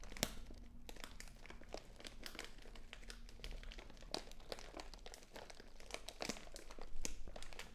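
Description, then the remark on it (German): Soft crackling and crinkling, like paper or foil being gently crumpled, with irregular little bursts of sharp clicks spread across the whole clip at a fairly quiet, steady level. “und vergleiche dieses Knistern mit anderen Geräuschen in deiner Umgebung und deinem Alltag.”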